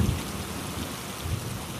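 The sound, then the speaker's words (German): Steady, hissing rain pours down while deep thunder rumbles low underneath, swelling twice in heavy rolls. No voices, just the continuous wash of a storm. “Einmal war es so dunkel, dass sogar das Meerweibchen seine Hand vor den Augen nicht erkannte, dann wieder wurde es durch die Blitze so hell, dass man alles bei dem grellen Licht überdeutlich sah.”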